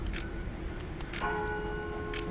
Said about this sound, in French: demeura dans cet état jusqu'à ce que le carillon eût sonné trois quarts d'heure de plus.